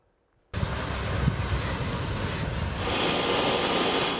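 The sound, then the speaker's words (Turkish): A military helicopter roars loudly as it takes off to carry patients from snowbound mountain villages near Van. A dense rushing engine noise with rhythmic low rotor chop, and a high turbine whine rising over it toward the end. “Karla kaplı dağları, yolları aşamayan, köylerinden bile çıkma şansları olmayan hastalar için havalandı askeri helikopter.”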